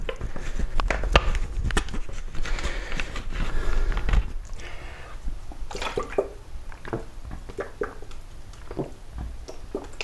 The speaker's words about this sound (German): Ein Schluck Wasser trinken.